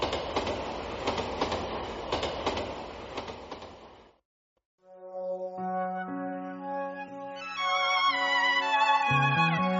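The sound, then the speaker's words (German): Steady rumbling of moving passenger train number 7269, on which some students do their homework and which serves as a school bus for pupils in a mountain region, with rhythmic clacking, then a brief silence followed by loud sustained, layered tonal whines that rise and thicken toward the end. No one speaks. “Einige Schüler machen im Zug Nummer 7269 ihre Hausaufgaben.”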